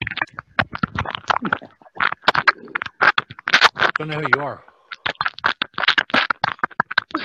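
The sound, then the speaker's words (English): Loud crunching of potato chips in rapid, irregular bursts that continue throughout, with a brief spoken phrase breaking in partway through. “is fucking working them chips, man.”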